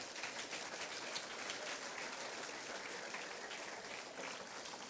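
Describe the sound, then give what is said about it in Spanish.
An audience applauds the Lord steadily, a dense, even wash of many hands clapping at once, sustained without pause for several seconds with no voices standing out above it. “Denle al Señor un aplauso, hermano.”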